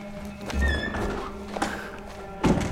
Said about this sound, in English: I'll close the doors behind you